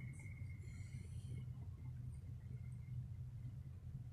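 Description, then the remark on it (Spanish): A taxi cruises along an empty city street on an autumn morning with a low, steady engine rumble that holds for several seconds, a faint high whine fading early on, otherwise quiet with no voices. “Hay algún que, algún que otro auto de alquiler merodeando, buscando a su pasajero para llevarlo a algún destino incierto”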